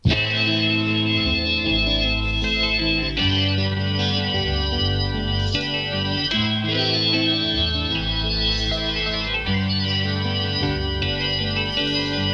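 A 1960s pop song plays steadily from a record, with full, warm band instrumentation, sustained chords and a deep bass line, at an even, moderate loudness throughout with no talking.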